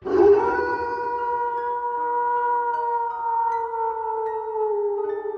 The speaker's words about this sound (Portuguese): Lá de longe ela ouviu um uivo.